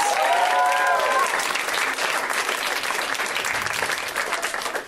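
A crowd at a show applauds steadily and loudly for about five seconds, welcoming a first-time performer, with a brief whistle or cheer near the start before the dense clapping begins to taper slightly.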